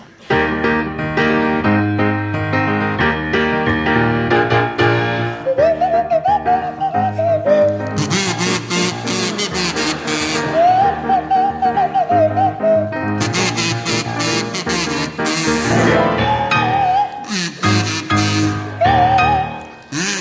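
Jeremy Hardy on a buzzy kazoo and Tim Brooke-Taylor on a sliding swanee whistle play a bouncy pop tune over a full, loud backing track, the whistle gliding up and down in wavering swoops between phrases.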